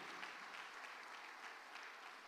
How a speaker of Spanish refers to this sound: Dale palma fuerte al rey.